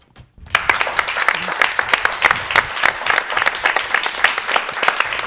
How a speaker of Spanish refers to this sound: Entonces, eh, de poca gente nada, porque hemos dicho que estamos en directo desde Plasencia y lo vamos a demostrar. ¿Cómo? Con un fuerte aplauso.